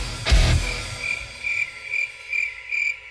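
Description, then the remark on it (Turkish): A car's turn signal indicator ticks in a steady, even rhythm, about two clicks per second, following a dull thump at the start, as the driver signals and turns left; no one speaks. “Hayır sinyal verdim sola döndüm.”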